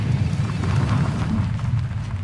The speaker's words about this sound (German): Die Flammen verschlingen bereits Bäume, Büsche und Gebäude. Er hört, wie in der Ferne Tanks explodieren.